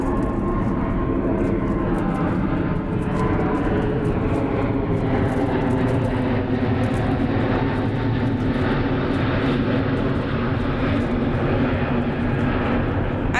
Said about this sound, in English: Sorry for the aeroplane again. we are right under Manchester Airport and yes, flying right over us. This Emirates is the Emirates is flying over us now.